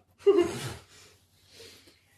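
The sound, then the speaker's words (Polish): Several people draw breath at once: a sharp, slightly voiced gasp, followed by two softer, airy inhales, with no talking. “wszyscy, wszyscy wzięli oddech i nikt nic nie powiedział.”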